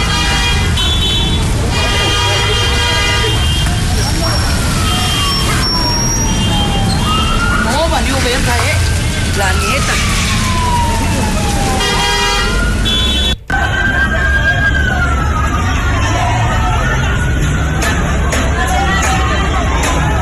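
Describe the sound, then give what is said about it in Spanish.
Police patrol car sirens wail in slow rising and falling sweeps, loud, over busy street noise with honking horns and a murmuring crowd, as patrol cars pass through the area and people run. “Y en eso vecinos que se apagó la luz y en esa zona que pasaron las patrullas y los locos y toda la gente corriendo.”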